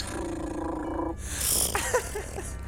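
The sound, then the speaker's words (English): A voice imitates a motorcycle sound like a card flapping in bicycle spokes, a buzzy, rattling drone lasting about a second, followed by breathy hiss and a few soft clicks. “So I have a bike that has a card attached to it, and it makes that motorcycle sound.”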